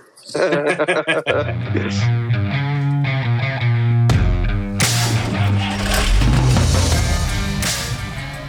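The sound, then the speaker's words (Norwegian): A short, loud intro jingle with sustained synth-like tones that swells into a fuller, brighter burst halfway through, then carries on at a steady level with nobody talking over it. “Kjør vignett!”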